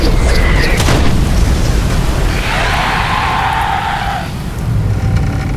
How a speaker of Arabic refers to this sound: أما ثور فأمسك بميولنر ورماها على الوحش هيا يا ميولنر أرني مصرعه